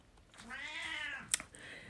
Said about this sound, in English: My cat is 20 years old. He is crying, and he loves to sit on a warm lap. So until I get him on my warm lap, we won't have peace.